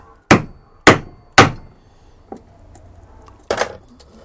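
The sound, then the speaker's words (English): Three sharp metallic strikes of a hammer on a screwdriver, punching a cut through a leather belt, land in quick succession, then a short pause with a faint tap before one more solid blow; loud and percussive with brief ringing tails, no talking. “So I position my screwdriver at the point where I want to make a cut all the way through, and I just punch it by hammering it.”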